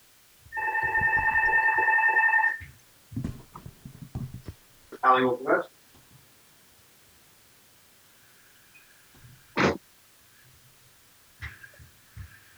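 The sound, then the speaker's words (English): A telephone rings once with a steady electronic tone for a couple of seconds, fairly loud, followed by scattered clicks, handling noises and a couple of short sharp sounds. “One second, it's uh the phone is ringing, and I am going to.”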